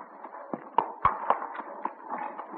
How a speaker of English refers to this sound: A frail little homestead, a ramshackle barn, a sagging corn crib, the clatter and creak of the old pasture gate as a farmer boy drives a team into the barnyard.